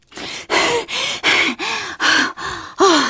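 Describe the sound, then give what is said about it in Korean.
Heavy, rapid panting from a woman running at full speed and overtaking on the track of Gudeok Stadium in Busan, at dusk in spring: about seven loud, harsh breaths in steady rhythm, partly voiced, each gasp separated by a brief pause, with no talking. “뒤에서 거친 숨소리가 들리는가 싶더니 김장봉투처럼 커다란 티셔츠를 입은 여성분이 모자를 푹 눌러 쓰고는 제 앞을 추월해 가는 겁니다.”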